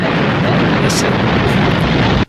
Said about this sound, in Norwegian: Nå spiller jeg jinglen.